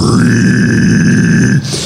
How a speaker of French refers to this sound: puis ça, là, ça fait un son un peu sifflé qu'on appelle les pig squeals mhm. dans, le monde du métal.